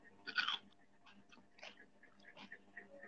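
Crunchy chewing of raw kencur root, with a sharp bite at the start and a few irregular crunches after, fairly quiet with no talking.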